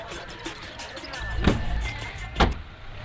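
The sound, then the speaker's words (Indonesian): Someone gets into a car: two solid thumps, like a door closing and a body settling in, over a low idling rumble. No one speaks. “Tapi lo masuk dulu ke mobil gue.”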